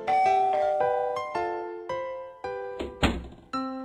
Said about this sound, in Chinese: 接着，他上前按响门铃。